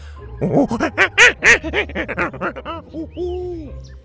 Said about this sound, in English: Get out of here, Tuku! Bo waved Tuku away from Gavin's bag and the chubby monkey menace made off with a wallet, howling angrily as he hopped out.